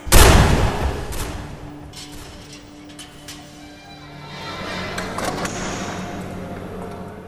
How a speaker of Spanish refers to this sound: Un tiro en la cabeza le hizo caer suavemente, como un desvanecer de piel y huesos.